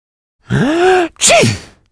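a person sneezing

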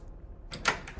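door slowly opening

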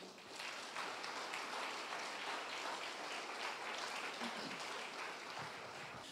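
audience applauding

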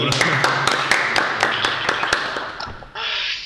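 clapping

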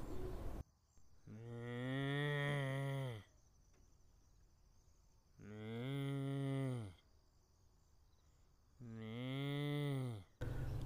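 cow mooing

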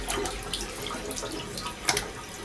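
running tap water

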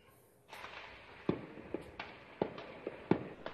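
gunshots at night

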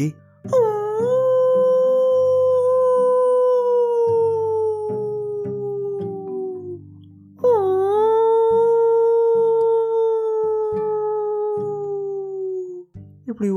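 fox howling

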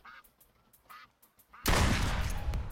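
duck quacking

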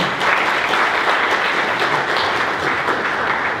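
round of applause

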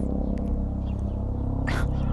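helicopter flying overhead

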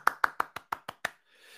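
applause

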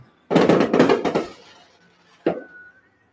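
fireworks exploding

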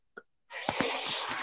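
sneeze

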